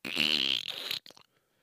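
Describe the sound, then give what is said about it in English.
A person vocally imitates the wet, sputtering fart sound Gak putty makes when put into its container, a loud buzzy blast lasting about a second that breaks into a few brief sputters before trailing off. “Uh, but this shit, you'd put it in the container and it would just go, and you know, kids, you know, that's when fart jokes and stuff were cool.”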